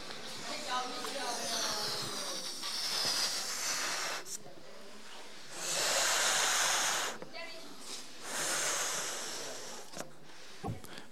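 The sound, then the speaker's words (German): Balloons being blown up by children racing to see who inflates theirs first: a series of long, breathy, hissing puffs of air in bursts of a few seconds each, with brief pauses between, fairly loud and with no talking over them. “Also mal schauen, wer zuerst den Luftballon aufgeblasen hat.”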